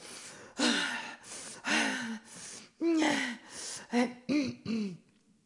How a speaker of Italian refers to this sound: Va bene, respiro.